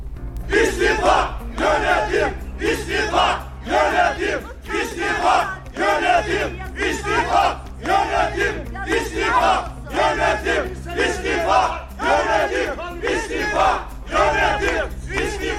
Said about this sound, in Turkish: Başka bir şey dediler mi dinliyorum ama yönetim istifa demişler sadece şu ana kadar. maçından sonraki seyirci tezahüratı gibi olmuş.